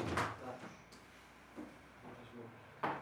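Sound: door being opened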